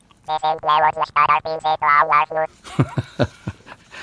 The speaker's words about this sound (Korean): UFO 회화하는 소리 지들끼리 대화하는 소리예요. UFO 네.